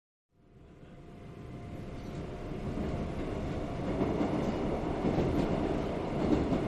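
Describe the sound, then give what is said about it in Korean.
A subway train rumbles steadily along the rails, a dense low roar that swells in gradually and stays loud, with faint rattling and clatter throughout. No one speaks. “다시 지하철을 타고 문 앞에 서서 큰 꽃무늬 원피스 펄럭이며 바람을 맞고 서 있다가”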